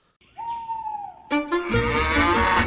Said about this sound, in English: Ooh, Owl. Owl.